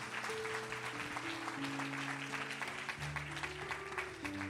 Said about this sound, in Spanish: Alguien que le dé un aplauso al Señor, que lo crea con todo el corazón.